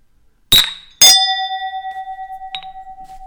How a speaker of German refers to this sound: Mein Glas, mein Glas schallt einfach länger.